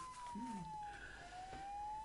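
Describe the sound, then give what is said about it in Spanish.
A faint siren wails as one long steady tone that slowly sinks in pitch, then rises again, sounding continuously across the short recording. “A mí me parece que es una sirena eso.”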